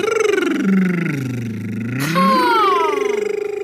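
A voice close by imitates a car engine revving: a loud, buzzy vroom whose pitch dips low and then climbs again, held without pause for a few seconds.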